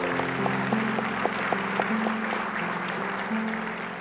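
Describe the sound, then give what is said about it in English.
An audience at Portland Christian Center applauds and shouts praise to the Lord together, a steady wash of clapping with sustained, overlapping voices calling out and a few sharper claps standing out. “Come on, let's give the Lord a shout of praise.”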